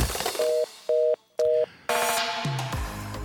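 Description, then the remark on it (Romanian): Three evenly spaced beeps of a telephone busy tone after a call is hung up sound out clearly, followed by a burst of louder, noisier electronic sound with a falling tone. “Până îți închide telefonul!”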